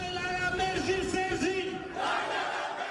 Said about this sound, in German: Der Platz voll mit Hunderttausenden jubelnden Menschen.